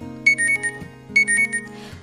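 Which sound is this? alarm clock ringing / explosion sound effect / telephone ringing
alarm clock ringing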